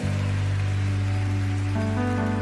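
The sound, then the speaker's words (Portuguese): A church audience applauds the Lord loudly and steadily, a dense wash of clapping that fills the whole clip while sustained keyboard chords hold underneath and shift once near the end. “Você pode aplaudir forte ao Senhor?”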